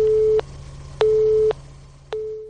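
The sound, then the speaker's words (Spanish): A telephone busy tone after a dropped call: a steady electronic beep pulsing on and off in a regular rhythm, fairly loud, with a low hum underneath and no voices. “Parece que ha fallado la línea.”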